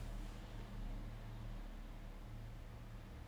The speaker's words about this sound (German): Ich höre gerade irgendwie vor unserem Haus hält gerade ein LKW. Keine Ahnung, was der hier möchte.